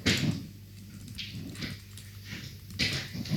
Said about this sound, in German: Wartet mal ganz kurz, ich muss mal kurz meine Katze vertreiben. Die kratzt hier gerade und das ist laut.